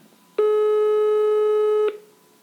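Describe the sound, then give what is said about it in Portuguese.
A single long ringback tone from an outgoing phone call to a guest, a steady buzzy electronic pitch with strong harmonics lasting about a second and a half before cutting off, with no talking. “Deixem-me ver aqui se eu consigo lhe ligar e se ela está aqui disponível para falar.”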